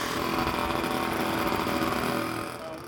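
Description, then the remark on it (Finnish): A steady mechanical drone of moped engines buzzing continuously at high revs, dense and loud, easing off slightly near the end, where 15-year-old moped riders gather, such as the ABC and S-Market yards in Ilmajoki, Finland. “Oikein tämmöiset perinteiset paikat, joissa mopoilu pörräillään”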